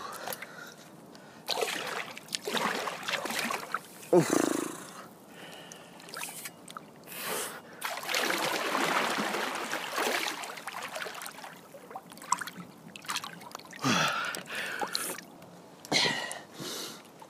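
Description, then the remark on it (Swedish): Someone takes a dip, wading and splashing through water, with sloshing, dripping and broad bursts of churning water, plus a few sharp breaths or gasps, over about seventeen seconds. “Och när jag har tagit mitt dopp då kommer vi förflytta oss till mitt varma vardagsrum”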